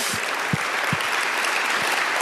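An audience breaks into steady, dense applause, many hands clapping together in a continuous wash of sound that holds at an even level throughout, with no voices over it.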